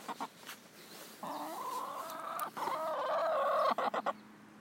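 A hen, coaxed to call into a microphone, clucks and sings a drawn-out, warbling call, rising and wavering in two long phrases, ending with a few short sharp clucks. No one speaks.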